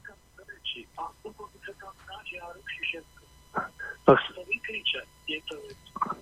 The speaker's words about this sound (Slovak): E, tam je echo, hej? To znamená, že musíte si vypnúť rádio, keď hovoríte do telefónu.